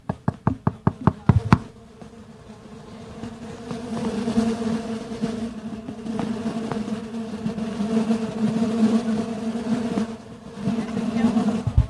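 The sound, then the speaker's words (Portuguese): A quick series of about ten sharp knocks on a wooden box, followed by a sustained, steady buzzing hum of many stingless bees that swells and continues for several seconds. “para ver se a gente consegue colocar o barulho o que elas fazem quando a gente bate na caixinha.”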